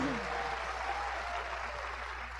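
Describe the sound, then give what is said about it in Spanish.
Sustained audience applause called for the speakers' double-diamond support team, a dense, steady wash of clapping that stays loud and even for the whole stretch, with a brief tonal cheer or voice at the start. “para quien pide un aplauso bien fuerte, nuestros dobles diamantes.”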